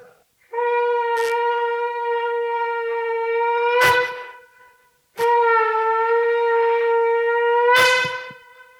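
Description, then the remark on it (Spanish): Two long, loud blasts from a trumpet or shofar, each holding a steady, bright, buzzy note for about three seconds before breaking off with a rough sputter, separated by a short silence. “Entonces comenzamos a tocar trompeta.”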